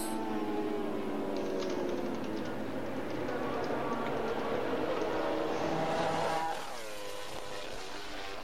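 Loud, high-revving motorcycle engines scream continuously, their pitch wavering as bikes race past; near the end one engine drops sharply in pitch as it shifts or passes by.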